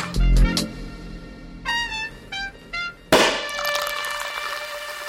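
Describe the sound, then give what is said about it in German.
The cork of a bottle of German sparkling wine (Sekt) pops with a sharp burst, preceded by a few squeaky tonal creaks, then a bright ringing, fizzy tail. No one speaks. “Apropos Korken. Wir haben einen ganz tollen Sekt dabei”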